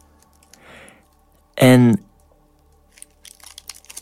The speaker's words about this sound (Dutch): ja, je hoort het hier, het papiertje dat we er nu heel traag afnemen.